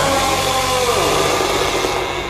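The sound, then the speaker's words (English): A chainsaw engine roars loudly, kept revving so it does not jam, its pitch sliding downward midway before holding at a steady, buzzing idle for the rest of the short moment. “And I take it, you know, chainsaw.”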